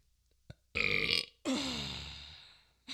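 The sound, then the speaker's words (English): A long, drawn-out burp with a wavering, warbling pitch like vibrato, loud, preceded by a short throaty grunt and a brief click at the start. “Should I auto tune all your burps in post production so they're all warbled?”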